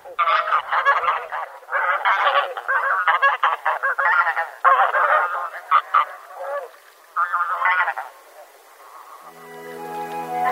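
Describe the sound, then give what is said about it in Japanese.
A flock of bean geese honks and cackles at night on the water in Tome, Miyagi Prefecture, searching the water surface for food, in dense overlapping bursts, loud, with a busy chorus that fades near the end as a soft tonal hum rises. “宮城県登米市のヒシクイをお届けします”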